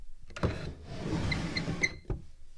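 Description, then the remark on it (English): A heavy drawer rumbles as it slides along its runners with a few faint squeaks, bracketed by a thump at the start and a solid knock as it shuts. No voices. “I just opened a drawer and you listened to it.”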